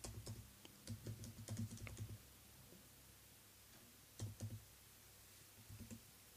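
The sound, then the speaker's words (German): Quick bursts of typing on a computer keyboard as someone briefly googles a term, a flurry of key clicks for about two seconds, a pause, then a few more short taps; no one speaks. “Ich musste eben mal kurz googeln.”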